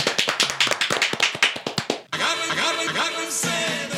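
Brisk applause, a burst of quick, sharp handclaps from a few people for about two seconds, then abruptly replaced by a steady, sustained tonal sound like music.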